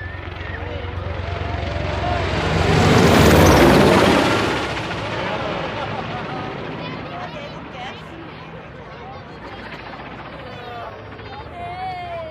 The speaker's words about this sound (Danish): Det sidste, jeg har med i denne reportage fra havnens dag i Humlebæk, det er disse optagelser af redningshelikopteren, der kom ind over havnen adskillige gange.